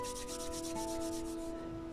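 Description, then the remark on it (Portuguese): Palms of hands rubbing briskly together at the close of a guided meditation, a quick run of about eight rhythmic swishing strokes that soften toward the end, over a quiet, steady tonal drone with no talking. “Você respira fundo, esfregue as palmas das suas mãos umas nas outras”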